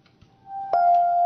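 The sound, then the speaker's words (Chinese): A radio half-hour time signal chime for Beijing time: a soft steady tone swells in, then a brighter, slightly lower electronic tone strikes and holds, clean and sustained, with no talking. “咱们半点报时。”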